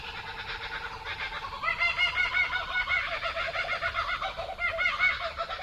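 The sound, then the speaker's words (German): A laughing kookaburra, an Australian bird, calls with loud, rapid chuckling bursts that rise into a raucous, sustained cackle. A second kookaburra joins, and an Australian magpie is faintly audible. There is no talking. “Das ist der Laughing Kookaburra.”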